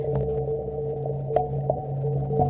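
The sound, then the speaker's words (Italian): Sonified data from the BepiColombo spacecraft during a planetary flyby, as the planet passed beneath it: a steady, eerie electronic drone of layered low hums, broken by a few sharp clicks and creaks, playing alone at moderate volume with no talking. “andiamo allora a vedere, a sentire che cosa ha sentito, tra virgolette, con le orecchie Beppi Colombo e che co- nello stesso momento in cui ha visto il pianeta eh, passare sotto di lui.”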